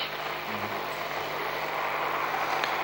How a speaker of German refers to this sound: Der erste Hubschrauber zieht in etwa 20 Meter Entfernung bei unserem Fenster vorbei. Und der zweite, der zuerst beladen worden war mit Terroristen und Geiseln, hat jetzt den Rotor angeworfen und erhebt sich.